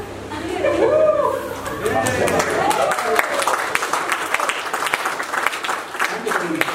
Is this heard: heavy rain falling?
no